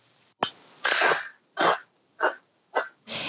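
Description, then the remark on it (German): A sharp snap as a crunchy cracker is bitten in the mouth, followed by four or five loud crunching chews in a steady rhythm, with no talking. “Wie wichtig ist dieses Gefühl oder auch das Geräusch, was im Mund entsteht, wenn man auf die Beta-Cracker draufbeißt?”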